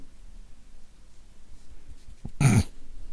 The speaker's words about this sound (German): Hast du es gehört? Ih, was, was, röchelst du denn da hoch? Ganz tief. Ganz viele Haare.